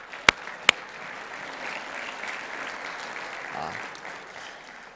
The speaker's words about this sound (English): Let's give the Lord a hand clap.